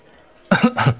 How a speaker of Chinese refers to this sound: 李嘉诚看了一眼对面的两人，轻轻咳嗽了一声，脸色也有些怪异。